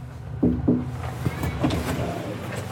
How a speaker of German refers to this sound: Vorsichtig klopfe ich an die Haustür.